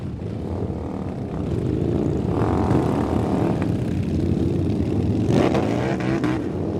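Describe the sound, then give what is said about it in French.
A motorcycle engine drones steadily and loudly throughout, with a slight rise in revs partway through as if riding along at a constant speed. No voices. “Vous avez tous les deux une moto.”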